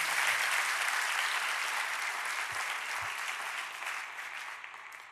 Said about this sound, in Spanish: Y ese aplauso también lo recibe el Señor, porque por Él ellos están acá.